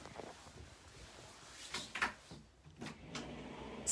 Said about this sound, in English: Just shut the door behind you, it'd be great. Thank you.